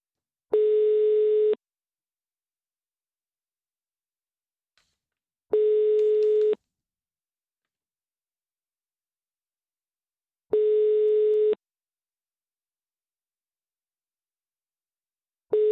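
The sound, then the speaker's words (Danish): A phone line's ringback tone on an outgoing call repeats unanswered: a steady, buzzy one-second tone sounds four times, separated by roughly four seconds of silence, clear with no one speaking. “Ja, måske skal vi bare, øh, måske skal vi bare satse på, at han ikke har mulighed for at tage telefonen, ja.”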